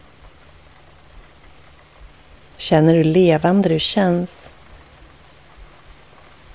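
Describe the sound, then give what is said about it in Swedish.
Steady, soft rain hisses evenly throughout, a constant wash of falling drops. Partway through, a voice speaks briefly over it, then the rain carries on alone. “Och med din fulla uppmärksamhet låter du ansiktet ta emot regnet.”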